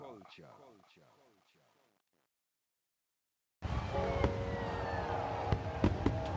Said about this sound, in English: that's beautiful. Those are gorgeous. Aren't they amazing? Happy fourth, baby. I don't see fireworks like that in Jamaica. Yeah, that's uh, oh, that's how we do it up here in the big bad USA, you know?